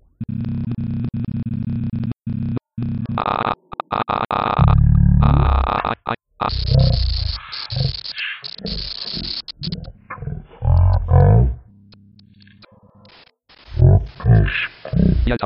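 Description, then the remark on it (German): Slow audio scrubbing made by holding down the right arrow key, playing a voice back very slowly and very deeply: stretched, growling fragments of sound stutter forward in choppy bursts with brief dropouts, loud and distorted, running continuously with no one talking over it. “Man kann einfach die Pfeiltasten gedrückt halten und bewegt sich dann vorwärts und rückwärts, bekommt dazu aber diesen lustigen Soundeffekt, äh, den man eventuell kennt.”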